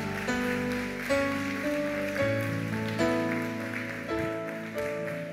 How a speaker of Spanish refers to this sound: Ah, vamos, celébrale. Dale fuerte el aplauso al rey.